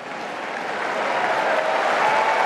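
A crowd of tennis spectators at Wimbledon bursts into sustained applause as 43-year-old Venus Williams enters, a dense, steady patter of clapping mixed with cheering voices that swells slightly louder over a couple of seconds, with no one speaking.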